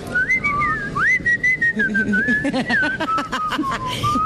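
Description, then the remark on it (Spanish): A person whistles a wavering melody, the pitch gliding up and down steadily for several seconds, with some background noise and faint voices underneath. “¿y qué tal los que chiflan?”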